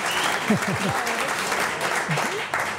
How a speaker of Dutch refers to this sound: heb jij in het eh, schaatsstadion wel eens zo'n applaus? nee, nee, niet zo direct.